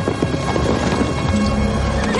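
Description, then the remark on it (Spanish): A horse's hooves clop in a quick, steady rhythm as General Kay rides out of the camp on horseback, set against a dense, constant wash of noise like rain. No one speaks. “general Kay sale del campamento a caballo.”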